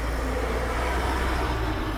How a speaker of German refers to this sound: Moment, Auto.